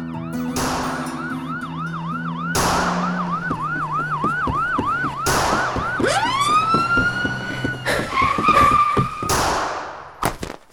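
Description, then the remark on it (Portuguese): A police car siren wails in rapid rising and falling cycles, loud, switching to a sweeping tone as the car passes, chasing people running from a restaurant around a corner into a dark alley, with heavy thuds and crashes breaking in throughout. “Enquanto saíamos correndo do restaurante, uma viatura da polícia dobrou na esquina e saiu atrás da gente até um beco escuro.”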